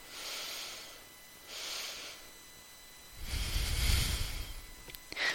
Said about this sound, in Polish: które polega na tym, że wdychamy powietrze nosem i przy takim już końcu, wiecie, że już prawie jest, jesteście pełni od powietrza, bierzemy jeszcze taki dodatkowy haust też, e, też nosem, czyli tak... i wydychamy spokojnie powietrze.